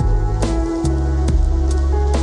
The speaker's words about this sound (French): avec un bruit de la pluie derrière.